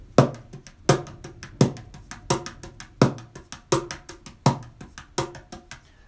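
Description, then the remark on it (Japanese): A mini cajon plays a steady sixteenth-note (16-beat) groove alone, with strong bass-heavy slaps on the main beats and quick, lighter taps filling the gaps between them, clear. “まあ、あの、16ビートっていうのを以前やったんですけれども、16ビートっていうのはこんな感じ。”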